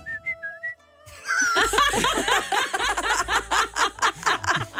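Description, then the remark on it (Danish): A short run of clear whistled notes as a person tries to whistle their age, a few brief pitched tones, then a burst of lively laughter and chatter from several people that fills the rest. “Hvordan fløjter man sin alder?”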